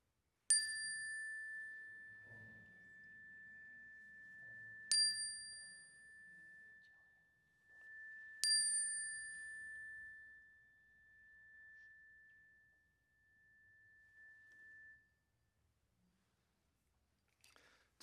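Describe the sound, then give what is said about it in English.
A chime is struck three times, a few seconds apart, to begin a shared prayer in an audience's sanctuary, each bright strike blending into one clear ringing tone that lingers and slowly fades, with faint low rustling underneath. “So, at the sound of the chime, share your cares.”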